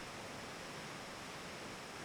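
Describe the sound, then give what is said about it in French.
Water pours steadily down a waterfall, a constant full-bodied rush echoing as if inside a cave, unbroken from start to finish with no voices. “Peut-être qu'ils pourront m'aider si je les suis de l'autre côté de la cascade.”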